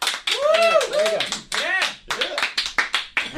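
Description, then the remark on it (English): Sparse, uneven clapping from a small handful of people, mixed with a few vocal whoops and chatter, thinning out into scattered individual claps. “Scant applause.”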